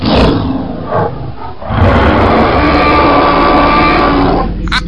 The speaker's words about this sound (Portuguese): Ele usou isso no Dino Wars. Ele chegou pra esposa dele e pediu pra esposa dele ficar rugindo pro microfone.